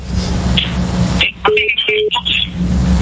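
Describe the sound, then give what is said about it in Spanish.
A telephone being dialed: a quick run of short, steady touch-tone beeps at differing pitches, clear over a constant low hum, with no one talking. “No se oye nada vuelve a llama, vuelve a llama.”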